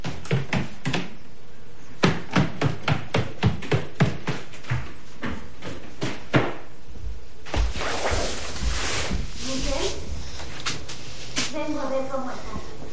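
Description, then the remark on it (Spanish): About a dozen firm, evenly spaced footsteps thud up a staircase, then give way to muffled voices talking. “sube la escalera.”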